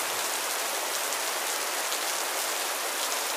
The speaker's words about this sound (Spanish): O que estoy bajo la lluvia.